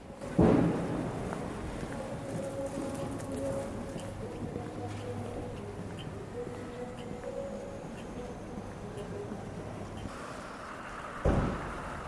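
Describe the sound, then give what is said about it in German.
Ambience of the Zieglergasse underground U-Bahn station: a steady low rumble with sustained tonal hums from passing trains, a sharp thud near the start and another near the end, murmurs underneath. “U-Bahn-Station Zieglergasse.”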